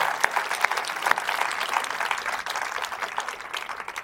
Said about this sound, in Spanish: Aplaudamos al Señor.